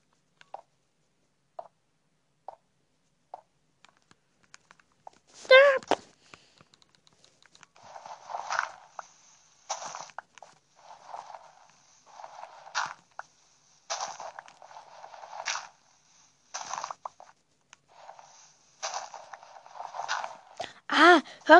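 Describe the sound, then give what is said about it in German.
Footsteps on bare blocks: a few faint, evenly spaced taps, then a louder run of crunchy, irregular steps with a bright, scratchy edge, and no voices. “auf Blöcken, wo kein Erde, äh, wo kein Gras drauf ist, klingt so. Aber auf welchem wo Gras drauf ist, klingt so.”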